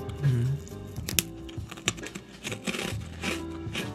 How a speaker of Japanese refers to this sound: 僕はもう今日も自由にライブして今セサミスティックを食べてる、食べてるっていうのに。